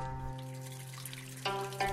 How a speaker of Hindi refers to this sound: पानी नालियों से बहता हुआ पुराने सीमेंट की सीढ़ियां